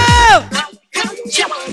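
A crowd yells and screams in loud bursts, with a short gap between them, the cheering rising and falling in pitch over a low rumble.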